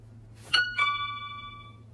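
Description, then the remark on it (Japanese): A two-note ding-dong chime sounds once, the second tone striking just after the first, both ringing out and slowly fading over a quiet background hum. “ピンポンっていう音を聞くと、ジャルジャルのピンポンパンゲームを思い出すんだけど、知ってるでしょうか皆さん。”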